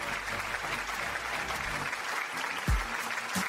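An audience applauds steadily in a minute of applause for Héctor Suárez, a dense, even wash of many hands clapping that holds at the same loudness from start to finish, with a brief low thump near the end.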